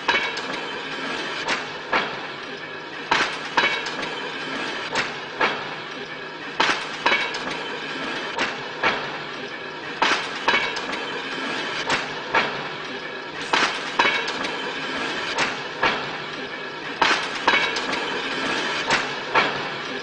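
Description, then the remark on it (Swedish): A rail draisine carrying three men rolls slowly along train tracks into the Zone in a Tarkovsky film, its wheels striking rail joints in a regular clickety-clack rhythm over a continuous metallic rumble and hum, with faint clinks throughout. “och äntligen då hamnar på den här dressinen och så åker de in ja. långsamt och närmar sig zonen.”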